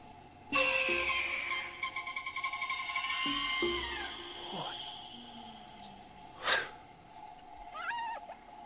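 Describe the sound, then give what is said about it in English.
A hyena's loud, high wailing scream bursts in and holds with rapid pulsing, then slides downward, followed by a sharp yelp and a few faint whooping calls over a steady low hum. “Did you hear that scream? No, it's a, it's a hyena.”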